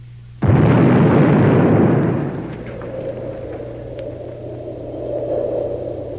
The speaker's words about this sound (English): After the first nuclear explosion, it was impossible to stem the tide of destruction.